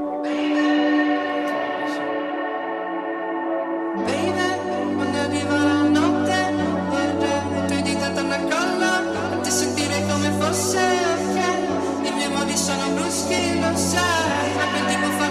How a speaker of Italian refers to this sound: Ci ascoltiamo la canzone e poi torniamo qua in diretta.